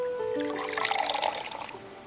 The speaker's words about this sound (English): I sucked my teeth and poured myself a couple fingers of bottom shelf. It was all I had to keep myself warm until I paid the gas bill.